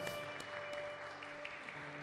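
A church audience applauds steadily to welcome the pastor, a dense wash of many hands clapping at once, with a faint sustained tone humming underneath throughout.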